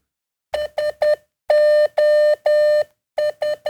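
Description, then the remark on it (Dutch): SOS tapped out in Morse code beeps: three short tones, three long tones, then three short again, all on one steady mid-high pitch with crisp gaps and no voices. “Dit is SOS in Morse.”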